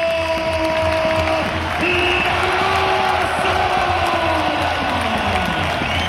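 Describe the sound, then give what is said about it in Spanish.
A two-minute standing ovation by the Real Madrid crowd in its home arena, honouring former coach Pablo Laso, after Real Madrid beat Bayern Munich; dense steady applause mixed with cheers and scattered whoops, loud and continuous throughout without a break. “Dos minutos de ovación de un Within Center puesto en pie uno de los mejores entrenadores de nuestra historia, Pablo”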